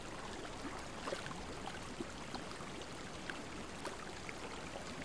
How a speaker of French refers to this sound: Tout autour de vous est silencieux, à l'exception du tintement de l'eau de la source. Lorsque vous bougez, doucement, vous entendez le bruissement de l'eau.